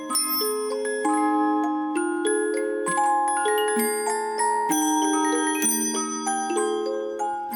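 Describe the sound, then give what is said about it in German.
A mechanical music device, just switched on in a living room, plays a bright, continuous melody of sustained tuned notes, with ringing bell tones layered over it, steady and fairly loud with no voices. “Ich setze das Gerät jetzt in Betrieb, wie man hört, und es spielt eine sehr schöne Melodie, die nur durch die Glocken ein ganz kleines bisschen nervig wirkt.”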